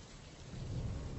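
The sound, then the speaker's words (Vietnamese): Heavy rain pours down in a steady, dense hiss while a deep rumble of thunder swells underneath, growing louder toward the end. No voices are present. “Bà vợ đưa mắt nhìn theo, nhưng dĩ nhiên ngoài đó chỉ là khoảng không gian tối tăm lạnh lùng, phủ trắng trời những hạt mưa đang ảo ạt rơi.”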